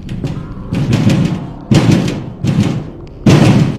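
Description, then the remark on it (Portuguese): Loud, heavy banging on a door, coming in several forceful bursts of rapid thuds with short pauses between, booming, with no voices. “A batida da porta não diminuía.”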